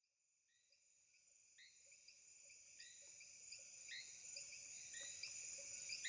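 A dense, steady chorus of crickets chirps through a quiet tropical night, with sharp repeating insect calls layered over a soft, low background hum that gradually swells in volume.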